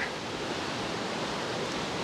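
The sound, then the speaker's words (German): Heavy rain pours down outdoors in a steady, dense hiss that stays loud and unbroken throughout, with no voices or other distinct sounds rising above the downpour. “Regnet gerade viel hier.”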